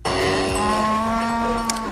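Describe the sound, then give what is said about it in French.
A cow lets out one long, sustained moo, low and droning with a rich, buzzy tone, loud and steady for about two seconds with no one talking. “Ce meublement ne vient pas du tout du salon de l'agriculture parce que, en fait, quand t'approches des vaches en vrai”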